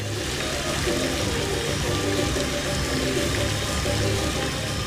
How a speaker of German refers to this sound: Vor dem modernen Einkaufszentrum Megaplanet tanzen farbige Lichter und Wasserfontänen zur Musik.